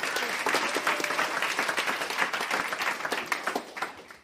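An audience breaks into a round of applause, many hands clapping in a dense, steady patter that stays loud throughout before thinning slightly at the end. No one speaks over it.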